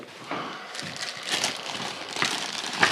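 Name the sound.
plastic bag rustling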